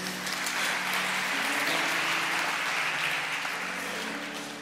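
An audience claps steadily for several seconds to thank a man for his help, a dense wash of applause that holds strong before easing slightly at the end, with no voices over it.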